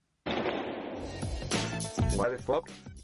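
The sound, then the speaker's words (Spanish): A sudden, loud gunshot bursts in, followed by a few more sharp cracks over a dense, noisy mix of voices. “Un disparo, suscríbete para más disparos.”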